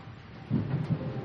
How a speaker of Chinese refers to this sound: 忽然间，天上一道闪电划过，接着巨大的雷声轰隆隆隆的响了起来，吓得大宝赶紧躲进一个大树洞。